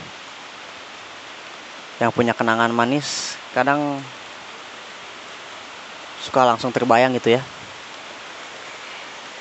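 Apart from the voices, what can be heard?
rain falling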